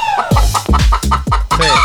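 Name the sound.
chicken clucking sound effect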